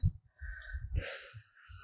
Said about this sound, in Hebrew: כאילו את נושמת על נר, את יודעת, כאילו את אה, מכבה את, ה, את הנר.